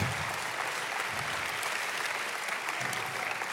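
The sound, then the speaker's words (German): Sustained applause from an audience, a dense, steady wash of many hands clapping at an even, moderate loudness for several seconds, with no voices standing out. “das ist ein Applaus.”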